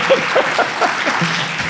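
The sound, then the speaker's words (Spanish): A burst of audience applause: many hands clapping at once in a dense, steady crackle that stays loud for under two seconds, with no voices standing out. “Eh, ah, un aplauso.”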